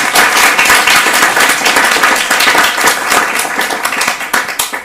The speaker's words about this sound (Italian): Perfetto, un bel applauso allora.